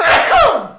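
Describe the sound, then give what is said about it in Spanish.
A single sharp, fairly loud sneeze, a burst of breathy noise that trails off into a brief falling voiced tail, with no talking around it. “Salud.”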